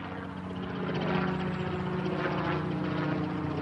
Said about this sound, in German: Am 6. November 2020 landet in Karlsruhe ein Hubschrauber.